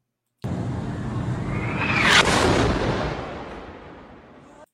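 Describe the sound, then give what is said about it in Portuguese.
An explosion at a hospital, heard in a news video: a rising whoosh peaks in a sharp blast around two seconds, followed by a broad rumbling roar that slowly fades. No voices are heard. “Bom, essa é a explosão no hospital é, um vídeo que está é, tá circulando já faz tempo.”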